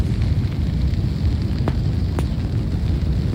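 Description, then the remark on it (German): Explosions rumble continuously at low pitch, with two sharper blasts cracking through about half a second apart; no one speaks. “Weitere Explosionen und noch einer und noch und noch.”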